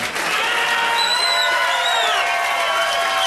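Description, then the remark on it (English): An audience applauds steadily for a few seconds, a dense, even wash of clapping with a couple of high whistles cutting through partway in, the applause being recorded for a CD. No one speaks. “Get some applause on that CD.”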